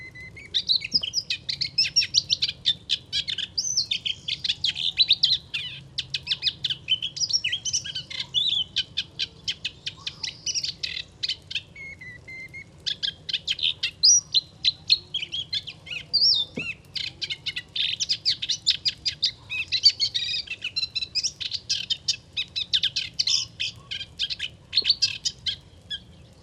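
A moustached warbler sings in reeds on a windless morning: a long, rapid, chattering song of dense trills and sweet notes, continuous, over a faint low rumble of agricultural machinery in the background.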